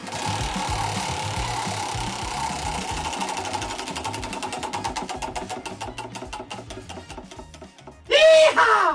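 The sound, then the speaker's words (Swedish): A spinning chocolate wheel (prize wheel) clatters with rapid, steady ticks that gradually slow and spread apart as it winds down, followed by a sudden loud burst of sound at the very end. “Ska vi snurra då? Ja, vi snurrar.”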